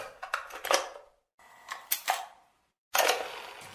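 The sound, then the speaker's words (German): A cassette labelled "fertig" is pushed into a player in a studio with a short flurry of plastic clicks and clatter, a pause, more clunks, then a steady mechanical hiss as it starts. Fairly loud, no voices. “Die haben mir hier eine Kassette dagelassen. Da steht drauf fertig. Ich tue die mal rein.”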